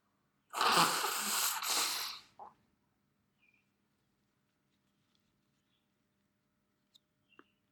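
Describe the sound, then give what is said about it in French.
A person pausing to blow their nose: a loud, forceful two-second honk with two surging pushes, then near silence broken only by a few faint small clicks and rustles. “Alors je fais une pause pour me moucher.”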